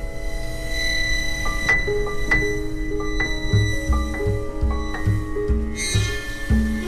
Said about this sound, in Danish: Jeg har lige noget musik her, der bare lige understreger min pointe først. Lyt lige lidt til.